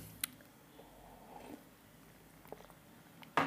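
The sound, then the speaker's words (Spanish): Soft mouth sounds of someone taking a small sip of water, with small wet clicks and a brief gulp near the end, with no talking. “Eh, voy a revisar, voy a tomar un, traguito de agua que llevamos una hora.”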